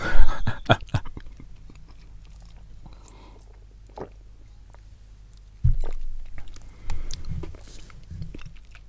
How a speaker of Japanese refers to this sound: ビスケットですね、ビスケット。僕の中でビスケットといえばこれ。ビスケットの代名詞です、これ。マリー。これうまいよね。めっちゃお腹ギュウギュウってるわ。唐突に始まる咀嚼音